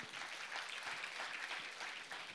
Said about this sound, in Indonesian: Tepuk tangan buat Tuhan, saudara.